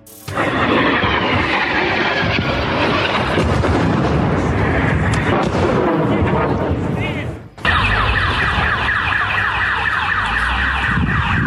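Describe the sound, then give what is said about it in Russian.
Loud, chaotic scene of explosions in a city centre, with heavy booming rumble as missiles rush past and something burns. A car alarm wails through it and shouting voices mix into the din, all close and continuous. “Так, почалось взрывы взрывы, взрывы в центре города Найвазовского.”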